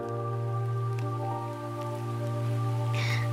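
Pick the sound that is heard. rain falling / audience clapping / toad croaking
rain falling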